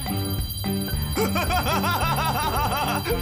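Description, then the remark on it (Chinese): Bells on gloves shaken to cheer up a dragon jingle in quick, bright repeated bursts over steady music, while the dragon's high voice giggles and warbles along through most of the sound. “手套发出的铃铛声让龙觉得很开心。”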